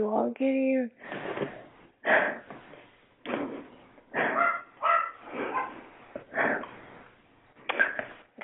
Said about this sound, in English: That's my dog barking at me.